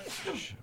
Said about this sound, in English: bless you, bless you.